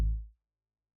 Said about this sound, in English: So I, I did the example here. This is a normal 808.